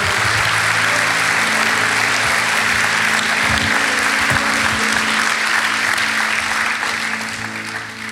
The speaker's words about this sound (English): Can we give God a big clap? Isn't He good?